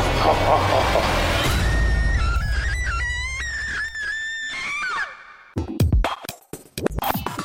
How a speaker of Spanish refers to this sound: Oye, ahora sí se está quedando chiquito ese grito, ¿eh?